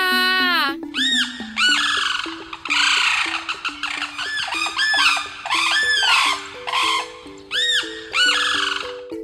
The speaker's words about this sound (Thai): เสียงร้องเมื่อสักครู่นี้เป็นเสียงของนกกระเรียนไทยค่ะ นกกระเรียนไทยนะคะอาศัยหากินอยู่ตามพื้นที่ชุ่มน้ำ อย่างเช่นหนอง บึง ทุ่งนา ทุ่งหญ้าที่มีน้ำขังเลยนะคะ